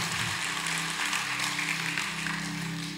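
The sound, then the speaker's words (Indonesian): A crowd claps steadily for about three seconds in applause for the people guarding everyone, a dense, even patter of many hands at a moderate volume, with a low steady hum underneath and no voices. “Kasih tepuk tangan dong buat yang menjaga kita semua.”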